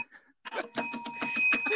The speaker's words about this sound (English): So, when you hear the bell ding, like so, that is a correct answer